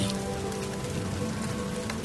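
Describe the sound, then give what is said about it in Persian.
Steady rain falls on Brest, a dense continuous patter of drops striking a hard surface with no breaks or voices. “باران روی برست میبارید”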